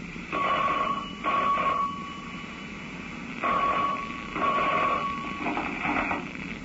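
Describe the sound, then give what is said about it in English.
A telephone rings in a classic double-ring pattern, two paired bursts of steady electronic trilling separated by a short pause, fairly loud with no one speaking. “young enough to forget everything else in life, till a phone call brought him out of the rose-colored clouds and back to reality.”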